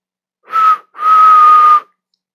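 A loud two-finger whistle by a woman, fingers put to her mouth, sounds twice, a short blast and then a longer held one, each a steady, piercing tone with a breathy edge. No voices accompany it.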